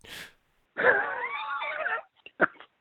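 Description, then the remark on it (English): A person blows a buzzing, wavering raspberry with their lips, mimicking a fart for just over a second, followed by a quick breath and a few small mouth clicks, fairly loud. “and you mentioned also the fart sound.”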